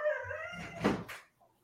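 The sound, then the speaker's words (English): A dog lets out a short, wavering howl that breaks into a rough, strained burst, then fades into faint whimpering. No one speaks. “Um, what just happened to that dog?”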